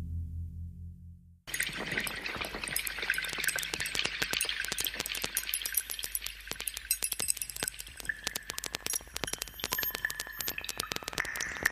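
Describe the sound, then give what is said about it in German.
After a moment of near silence, steady river water rushes and babbles over stones, full of small splashes and gurgles that continue evenly throughout, with no voices. “Ich würde sagen, wir hören mal hinein, wie dieser Fluss so klingt.”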